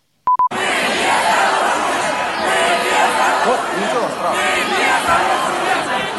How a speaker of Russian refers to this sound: Это центр Москвы. А люди стоят прижатые к стене. Их там около сотни человек. И они скандируют. Послушай.